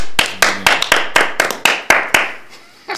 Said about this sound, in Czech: Potlesk.